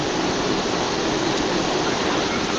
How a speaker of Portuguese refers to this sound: Chuva do lado de fora.